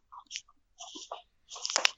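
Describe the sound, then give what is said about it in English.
Someone bites and chews a crunchy snack: three crisp bursts of crunching, separated by short pauses, with the last one the loudest and sharpest. No one speaks. “So that's so funny that you would bring up this article because I just saw my own pack of Fukushima's board ridiculousness over here, but they're not radioactive and they're pretty safe to eat.”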